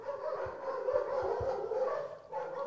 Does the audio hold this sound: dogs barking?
yes